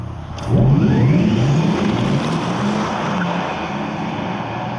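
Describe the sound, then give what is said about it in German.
A synthetic electric car motor sound rises in pitch as the vehicle accelerates, a loud continuous whine with a swelling tonal sweep, with no one talking. “Für größere Authentizität arbeitet Porsche zum Beispiel mit Soundsamples aus dem eigenen Elektromotor.”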